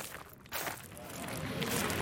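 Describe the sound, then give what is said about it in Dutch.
Steady footsteps crunch along an outdoor path at a walking pace across festival grounds among mountains, past the main stage, with a continuous breezy outdoor hiss behind them and no one speaking. “Oké, nou, we lopen hier op het terrein.”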